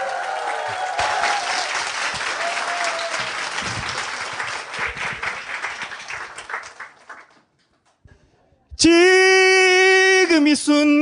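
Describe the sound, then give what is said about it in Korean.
An audience claps and applauds loudly and steadily for about seven seconds for a singer coming out to perform, then it fades out. After a short silence, a sustained musical tone begins abruptly. “박수 쳐주면 환장을 한다라는 분이니까 여러분들이 알아서”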